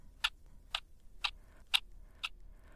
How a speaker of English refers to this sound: Just four to five hours of intense, physically taxing concentration and tension, with nothing but the ticking sound of the chess clock to fill the silence.